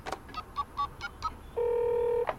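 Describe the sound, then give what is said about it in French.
A telephone number being dialed to call a horse breeder: a quick run of about six short keypad beeps, followed by a steady, sustained tone that cuts off with a click. “Je vais appeler un éleveur que je connais.”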